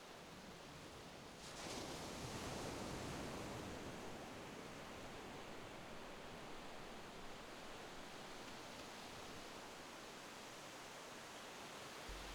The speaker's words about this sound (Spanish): Escucha las olas y piensa en este paisaje tan maravilloso.